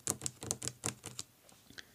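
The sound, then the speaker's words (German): Quick, crisp clicks of fingers typing on a laptop keyboard, about a dozen keystrokes in an uneven burst that gradually softens and trails off, with no voices. “die Beine baumelnd in einem weißen Sessel, während der Vater ihm gegenüber ohne einzuhalten seine Finger über die Tastatur des Laptops klicken ließ.”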